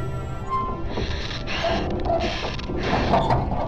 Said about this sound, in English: Your breathing is a little fast. I'm okay. I'm okay.